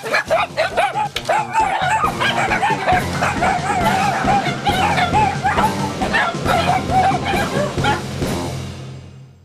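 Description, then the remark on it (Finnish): A 10-year-old dachshund, Tessu, makes warbling 'talking' yowls that rise and fall continuously, loud, with overlapping whines and yips from several other dogs she taught to 'talk' vocalizing together throughout. “Opetin Tessu juttelemaan pentuna ja sitten Tessu hoiti, että Tessu opetti 15 muuta juttelemaan.”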